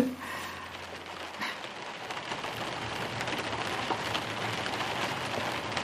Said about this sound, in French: On entend un peu la pluie là, parce que je suis arrivée mardi midi, il neigeait.